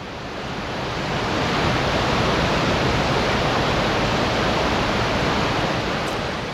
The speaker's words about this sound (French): L'un des trois paysans s'approche, mais le bruit de l'eau qui s'écoule dans le torrent empêche toute communication. Et le courant rend impossible toute tentative de traversée sans matériel.